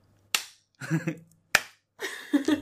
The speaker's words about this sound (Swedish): En kan också göra en self-five.